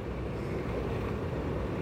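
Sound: sea waves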